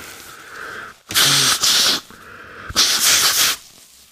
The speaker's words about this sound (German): Kleinen Moment, ich muss noch mal kurz schneuzen.